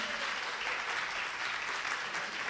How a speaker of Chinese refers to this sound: 拍手，来请 B 组起来